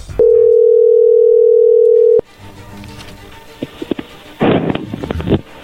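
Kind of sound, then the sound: signal or alarm, telephone dial tone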